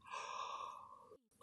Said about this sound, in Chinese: 在你打哈欠时，吞下的空气给你的身体带去了额外的氧气，让你感到更清醒。